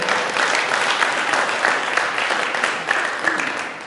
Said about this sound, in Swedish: Eh, jag vet inte om det känns bekvämt för er att ge en applåd till honom, men det är en man som jag tror har betytt mycket för många.